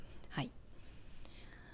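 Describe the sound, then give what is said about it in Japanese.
A cat lets out one brief, quiet meow inside a house while someone is tidying up, followed by soft background hiss and a couple of faint clicks. No one speaks. “ちょっとね猫が、えー、ニヤニヤうるさくて申し訳ないんですが”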